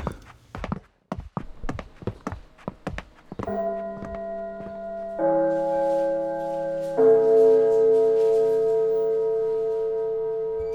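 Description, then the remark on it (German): The gong of the Erwin Piscator Haus chimes in three rising stages to announce the start of an event and call guests into the hall, each sustained tone layering onto the last and ringing on loudly, after a quick run of hollow footsteps. “Das war der Gong des Erwin Piscato Hauses. Äh, der ertönt ähm, in drei Etappen um Veranstaltungsbeginn anzukündigen, wenn die Gäste gebeten werden, in den Saal zu gehen, damit sie ein akustisches Signal bekommen.”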